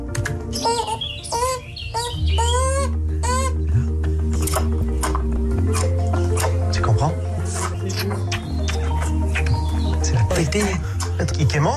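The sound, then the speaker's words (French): Thin, high-pitched whining calls from a female beaver and her young kit inside a burrow, recorded by microphones placed above the burrow as the female returns into it, clustered in the first seconds, then a person talks over a steady low rumble. “Eh ben, c'est une femelle castor et son petit, un castor junior très inventif, forcément.”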